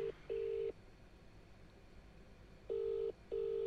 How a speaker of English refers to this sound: We are going to find out. Let's see what happens. Oh, it's ringing. Oh.